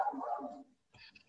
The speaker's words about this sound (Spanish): Entonces, eh, regresando al tema principal, perdón por mis perros, siempre van a estar presentes en estas grabaciones.